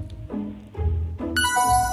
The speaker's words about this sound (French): Si le gong retentit, je ne peux pas valider la réponse.